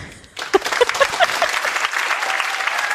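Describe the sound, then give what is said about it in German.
A burst of audience applause starts abruptly after a brief quiet moment, with dense overlapping claps sustained at a steady, fairly loud level and a few scattered cheers or whoops early on. “Ein Applaus für unsere Bundeskanzlerin.”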